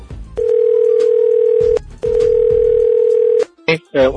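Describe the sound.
Two long, steady ringback tones of an outgoing phone call, made from Sulur to ask whether someone there knows Hindi, each lasting over a second with a short gap between, followed by a brief burst of a voice at the end.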